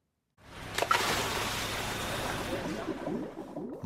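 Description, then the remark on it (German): A steady wash of underwater bubbling and gurgling, with a brief sharp burst near the start, from a scuba diver breathing in and out while exploring the sea. “Mal abgesehen vom Ein- und Ausatmen des Tauchers, von dem Geblubber also, das Menschen produzieren, wenn sie das Meer erkunden, auch ansonsten geht es ganz schön laut zu unter Wasser.”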